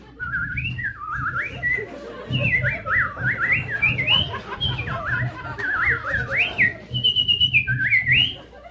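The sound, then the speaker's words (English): A person whistles a lively, warbling imitation of birdsong, quick rising and falling trills repeating for several seconds, fairly loud over a low background rumble. “All I can hear out in the garden is the merry song of every bird in the bird kingdom.”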